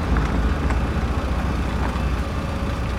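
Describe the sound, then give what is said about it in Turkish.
A car rumbles along steadily over rough, sloping ground planted with olive trees, its low engine drone and jostling bumps continuous throughout, with no voices. “Tamam dikkat edin biraz sarsılacağız.”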